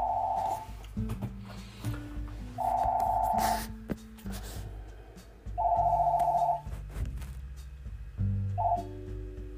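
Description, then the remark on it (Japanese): A telephone rings in repeated electronic trilling bursts, roughly every three seconds, with a steady low hum underneath and no one speaking. “ちょっと急に電話が鳴りましたので。”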